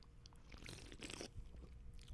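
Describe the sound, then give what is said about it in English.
A wet sip from a can of mango White Claw hard seltzer, with a brief slurping rush and a swallow in the middle, heard alone without any talking. “Let me take a sip real quick.”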